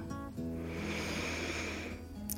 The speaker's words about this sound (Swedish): djupt andetag in.